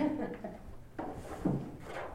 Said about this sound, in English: Here, just grab a chair and, and, and, and slide it in there.